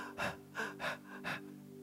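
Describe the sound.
A voice imitates breathless panting, like struggling for breath at high altitude: four quick, harsh gasps in a fast, even rhythm, with no other sounds around them.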